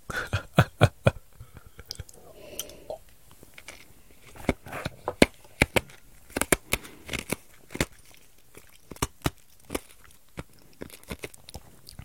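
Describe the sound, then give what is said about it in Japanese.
Crisp crunching of ice cubes being chewed between teeth, with sharp irregular cracks repeating throughout, some in quick clusters and others spaced apart, with no talking over them. “今の氷を噛んだ音です。”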